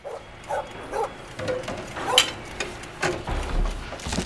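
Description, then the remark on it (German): A dog barks in a quick series of short, sharp yaps, roughly two per second, moderately loud, with a few whimpering yips mixed in and no voices. “Und nein, Hund hat nicht gereicht.”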